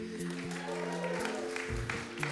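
A small audience at the Schouwburg claps steadily, a dense patter of hands over a low, sustained hum that runs beneath it for the whole stretch.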